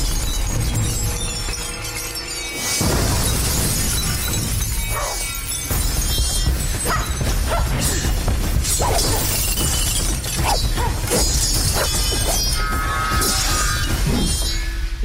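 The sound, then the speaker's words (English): Leon kicks down the door to Kasumi's room with a loud crash, followed by a chaotic stretch of shattering, clattering debris and crunching impacts that stay dense and loud throughout. “and then suddenly. Whoosh, Leon kicks the door down”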